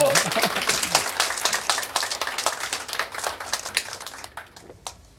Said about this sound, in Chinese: 啊，这个时候应该有掌声。